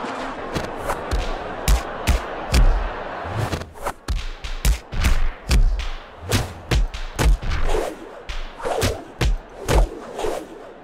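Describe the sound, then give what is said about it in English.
A karateka delivering punches and kicks: a rapid, irregular series of sharp thuds and whipping swishes, with short vocal bursts mixed in. The strikes are loud and come in quick clusters throughout. “It's actually of a karateka delivering punches and kicks.”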